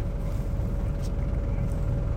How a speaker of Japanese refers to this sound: 今今2トントラックで2トン分の大豆運んでるんですけどこういうトラック乗って初めてこう大通りとかに出るとやっぱちょっと怖いですよね怖いんすよ